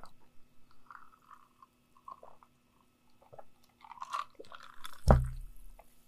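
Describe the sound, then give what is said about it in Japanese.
Wet chewing and mouth smacking, soft irregular squishy bursts that build in density, ending with one loud, sharp crunch or bump. No one speaks. “結構この、くちゃくちゃ言ってる音とか入るんだよね。”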